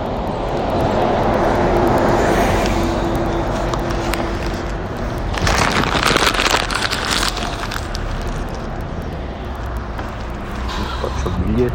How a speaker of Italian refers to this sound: Allora, vediamo se questo che arriva è il mio autobus. La mascherina ce l'ho pronta. Vediamo un po'. non questo ma mi sa che dietro c'è il mio dietro questo che sta arrivando sì esatto ecco il mio autobus ok